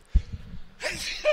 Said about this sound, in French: à tes souhaits.